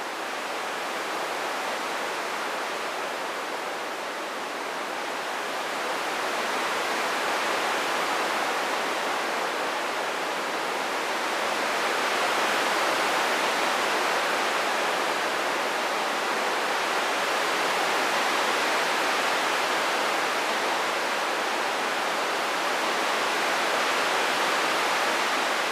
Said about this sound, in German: Also zum Beispiel dieses Wellenrauschen, was du jetzt im Hintergrund gerade hörst, ist nicht echt, sondern ist synthetisch erzeugt.